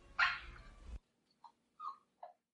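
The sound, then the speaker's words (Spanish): A dog gives one loud, harsh bark, followed after a short pause by three brief, high-pitched whimpers spaced evenly apart. “se parece, dicen que todos los perros se parecen a su dueño.”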